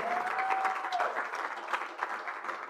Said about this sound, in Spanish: Por cierto, un aplauso para todo el liderazgo, voluntariado.